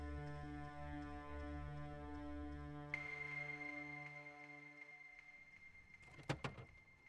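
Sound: vacuum cleaner running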